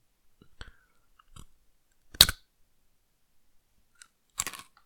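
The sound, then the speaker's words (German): Close, crisp crunching of imitation Nicknacks, dough-coated peanut snacks, eaten very near the microphone, a few sharp bites in irregular bursts with quiet pauses between them, and no talking. “Ne, es sind Nicknacks, aber Fake Nicknacks.”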